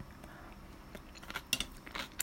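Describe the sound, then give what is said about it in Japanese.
Quiet chewing and biting on a crunchy snack, eaten while drinking Chamisul plum soju, with snacks including kimchi and cucumber; irregular crisp crunches and soft mouth sounds repeat over a couple of seconds, no talking. “今、チャミスルのすももを飲みながら、咀嚼音が入ります。”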